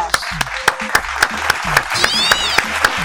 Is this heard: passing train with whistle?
no